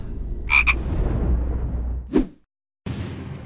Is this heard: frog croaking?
yes